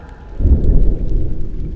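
A deep, heavy rumble of thunder rolls in around half a second and lingers over a bed of steady rain hiss, loud, with no voices.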